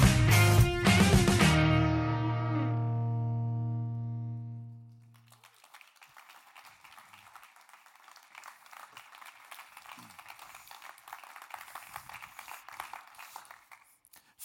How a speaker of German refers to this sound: Vielen, vielen herzlichen Dank für den grossen Applaus, der gehört dir. Der Applaus ist dir, weil du gekommen bist heute Abend.